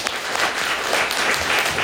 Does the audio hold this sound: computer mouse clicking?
no